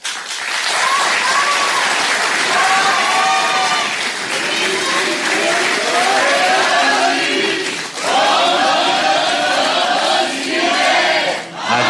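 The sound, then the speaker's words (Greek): An audience shouts the slogan "Antistasi kai pali" (resistance and struggle) in unison, echoing Yanis Varoufakis, a loud, dense wash of many voices with rhythmic rising and falling phrases, mixed with applause and cheering throughout. “Το λέει ο Γιάννη Βαρουφάκη, το φωνάζει και το κοινό από κάτω.”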